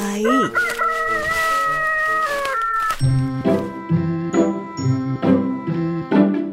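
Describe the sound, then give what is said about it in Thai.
A rooster that has just tossed aside a pearl to go on scratching for food crows one long, loud cock-a-doodle-doo near the start, followed by bright, bouncy music with a steady rhythmic beat. No one speaks. “เจ้าไก่ตัวผู้ได้กล่าวก่อนที่จะทิ้งมุกเม็ดงามนั้นไปอย่างไม่แยแส ก่อนจะตั้งหน้าตั้งตาเพื่อเขี่ยหาอาหารต่อไป”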